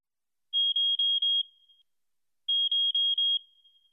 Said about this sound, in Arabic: عندما غادرت المبنى انطلقت صافرة إنذار من ساعتها الذكية